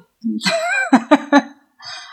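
A person clears their throat with a rough, drawn-out rasp followed by three short, punchy hacks in quick succession, then a brief breathy trailing sound.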